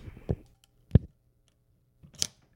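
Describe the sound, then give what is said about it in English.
A camera with a cloth shutter being cocked: a few dry mechanical clicks spaced apart, ending in a brief grinding, creaky ratchet. Quiet, with no voices. “And the shutter is now cocked. That's like the opening to Inner Sanctum. Yeah. The door creaks open.”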